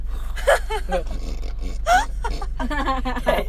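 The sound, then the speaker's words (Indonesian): A voice imitates heavy, rasping snore-like breathing in several loud bursts, some drawn out and groaning, with short pauses between them. “kayak suara-suara napas gitu iya iya iya iya, iya.”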